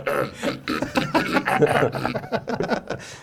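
Someone clears their throat several times in a row, rough rasping bursts, with faint snickering mixed in.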